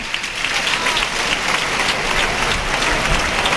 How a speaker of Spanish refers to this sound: Y el público que ovaciona fuertemente a Morante de la Puebla, que sale a recoger esa ovación hasta el tercio.